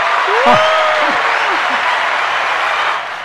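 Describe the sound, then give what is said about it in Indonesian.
Dense, steady applause from many hands fills the whole stretch, with a few brief voices rising over it early on before the clapping eases slightly at the end. “Telat nih dari tepuk tangannya”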